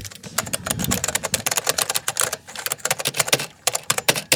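Rapid, crisp clacking of an old-fashioned mechanical keyboard being typed on with the microphone held against it, a steady stream of sharp clicks with slight irregular rhythm and no voices.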